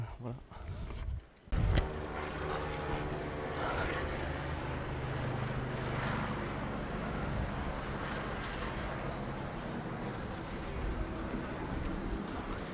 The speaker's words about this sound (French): Eh oui, vous, êtes, euh, vous avez entendu, euh, je sors de la rue des Puits Verts pour reprendre la rue, vous avez entendu le passage d'un hélicoptère.